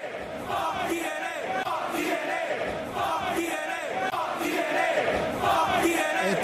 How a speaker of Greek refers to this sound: Ε, ανέφερα και πάλι φωνάζουν τώρα απ' έξω.